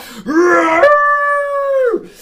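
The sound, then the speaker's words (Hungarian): A dragon howls once, loud, as it arrives, rising in pitch, then holding a steady, strongly tonal cry for over a second before dropping away at the end. “Szóval az a lényeg, hogy ő így betoppant, a szárnyai csapása fölkavarta ezen lélektűz jellegű dolgokat, majd aztán amikor megérkezett, akkor egyből üvöltött, vonított.”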